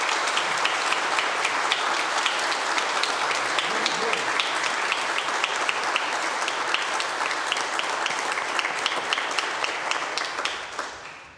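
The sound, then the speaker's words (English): A crowd breaks into sustained, dense applause for graduates, many hands clapping steadily at an even loudness for about eleven seconds before tapering off slightly at the end. “Well, let's give a big round of applause for all of our graduates.”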